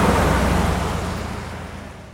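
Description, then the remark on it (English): A car swishes past a microphone on wet pavement, a sound used as one of the two main elements of the TIE fighter sound. Its loud, hissing tire spray is strongest at the start and steadily fades as it moves away. No voices are heard. “The first being the sound of a car passing by a microphone on wet pavement.”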